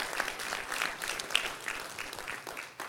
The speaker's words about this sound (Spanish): Un aplauso fuerte, Señor, por favor, a ellos. Un aplauso fuerte, Señor.